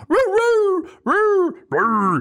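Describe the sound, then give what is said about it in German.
A person imitates a dog with three drawn-out, whiny howling yelps, each about half a second long and separated by short pauses, loud with no other talking. “dass ihr verschiedene Hundelaute noch habt.”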